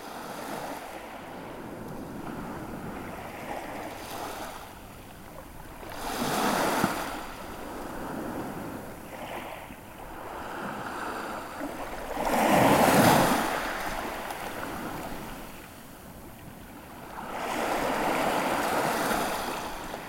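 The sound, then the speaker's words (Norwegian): Sea waves washing in over shore stones at the Varangerfjord in East Finnmark, Norway, several broad surges swelling and receding every few seconds, close by, with a steady breezy rush between them and no voices. “Det her er lyden av Øst-Finnmark, helt nede ved Varangerfjorden.”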